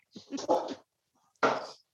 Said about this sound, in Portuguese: Oh! Sorry, meu cachorro aqui. Vem aqui. faz mal. Vem aqui. Fica quieto. Desculpa.